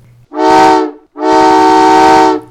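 A train whistle gives two loud blasts, a short one followed by a longer sustained one, each with a rich, steady harmonic tone and no voices.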